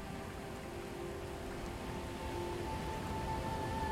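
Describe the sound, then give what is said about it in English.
A steady, soft hiss of light rain fills the whole clip, with a faint, continuous low hum droning underneath and no voices. “His long gray beard was matched by a similarly gray robe, with a deep cowl that cast a shadow over his eyes, even as it shrugged off the light mist of rain falling about him.”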